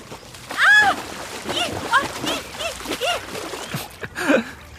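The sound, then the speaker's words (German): A body drops into water in a cannonball jump with a modest, short splash and some sloshing, followed by excited voices talking and exclaiming, with another small splash of water near the end. “Naja, eher so ein kleiner Arschklatscher, hm?”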